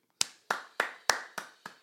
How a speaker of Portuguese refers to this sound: Palmas para ….